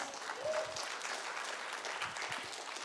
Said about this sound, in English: This is I accept that for myself, right? That's what your clapping means. You're identifying with it.